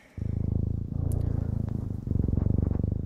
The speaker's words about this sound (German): Das ist kein Papagei. das ist auch kein Motor, sondern das ist ein Katzenschnurren.